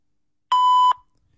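A single steady electronic beep from an answering machine, clear, holding one pitch for under half a second before cutting off into silence.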